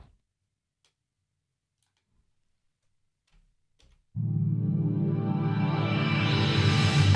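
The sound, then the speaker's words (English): A few faint ticks in near silence, then a jingle for radio station IDC Radio 106.2 FM bursts in abruptly, loud and full with bright, dense musical tones that carry on to the end. “Before we do that, let's stick in a little jingle.”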